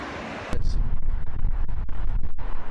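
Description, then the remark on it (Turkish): Heavy storm wind roars and buffets during a sea storm in England following Storm Sierra, with winds up to 140 km/h. A sudden surge of rumbling, crashing sea waves breaks after a moment of steadier gusting noise; no voices. “İngiltere Avrupa'da büyük hasara yol açan Sierra fırtınasının ardından deniz fırtınasının etkisi altına girdi.”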